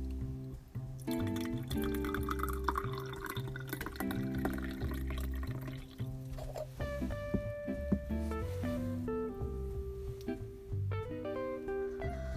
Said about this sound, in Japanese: あのお茶飲ませてもらいますあのお茶っこさせてもらいますよあのこれあれですあの第1回の記事で書いたあのお茶子さんのお茶を今入れてますよよく音聞いててください